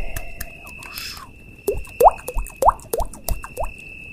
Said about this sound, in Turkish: Ormanın seslerini dinliyorsunuz.